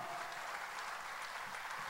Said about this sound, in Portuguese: Pode aplaudir o Senhor.